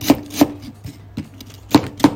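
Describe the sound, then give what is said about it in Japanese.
A knife chops through lotus root on a cutting board, several crisp thuds in an uneven rhythm with softer taps between them and no talking. “半月切りでもいいですし、まあ、イチ切りちょっと大きめだったら一丁切りでもいいですし、えー、お好みのね大きさにしていただければと思います。”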